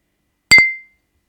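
A single bright, sharp clink of glasses of iced tea touching in a toast to 2021 and 2022, with a clear ringing tone that fades out quickly into silence.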